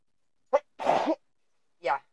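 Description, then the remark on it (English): A single loud sneeze with a sharp breathy intake leading into a broad, noisy burst, followed moments later by a brief voiced sound. “Bless yeah, me. You bless you.”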